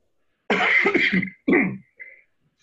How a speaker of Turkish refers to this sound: Biraz hastayım kusura bakmayın. Geçmedi bir öksürük.